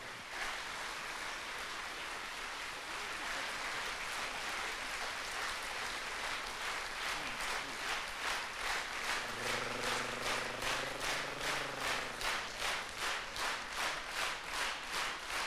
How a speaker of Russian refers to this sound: эти овации в твою честь. Спасибо тебе большое.